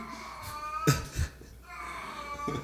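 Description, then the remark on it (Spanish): A cat that comes looking for female cats meows in two long, drawn-out, whiny wails with a few short knocks between them. The cries are fairly quiet and sound somewhat like a crying baby. “O sea, un gato que ah, viene a buscar gatitos gatitas.”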